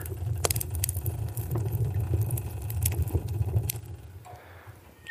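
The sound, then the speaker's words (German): A wood fire crackles inside a stove that is slowly warming up, with irregular sharp pops and snaps over a steady low rumbling roar. Moderately loud, with no voices. “Man hört das Feuer hier knistern, der Ofen wird langsam warm.”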